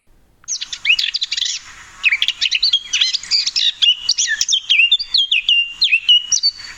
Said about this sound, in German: Also es ist definitiv eine Grasmücke und ähm, da das am Ende so einen schönen klaren Überschlag hat, würde ich auf Mönchsgrasmücke tippen.